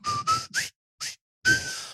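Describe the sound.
A whistled marching tune in short, bouncy phrases, with a brief pause before a longer held note, as whistled by Magnum while attaching small explosive charges to a bridge model; no one speaks.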